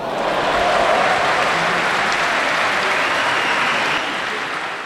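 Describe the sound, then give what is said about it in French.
A loud, dense wash of crowd noise from a packed stadium, a steady roar of cheering, shouting and clapping that holds for several seconds before easing slightly near the end. “On entend des gens crier qu'on n'entendait plus crier depuis un moment.”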